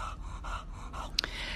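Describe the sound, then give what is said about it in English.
A bulldog pants heavily in steady, rhythmic breaths, moderately loud, with a brief sharper snort or sniff near the end and no talking. “So you might hear my bulldog in the background. He's heavy breathing.”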